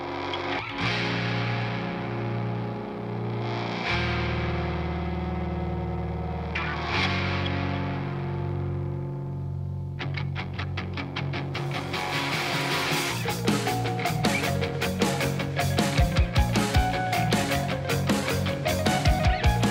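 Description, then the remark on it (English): Distorted heavy music near the end of a heavy song swells through sustained, effect-laden layers, then drives into a dense, pounding rhythmic climb and breakdown with loud, fast drum hits building in intensity. No voices. “near the end of the song where you're going to hear a really great climb and breakdown, one of the best I've heard in a long time.”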